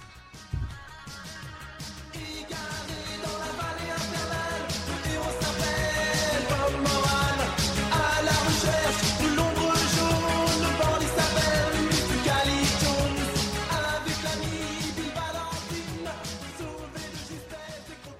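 A French rock song about physical and moral bullying in schools plays loud and full throughout, with a steady driving drum beat, dense layered guitars and sustained harmonic parts, fading slightly toward the end.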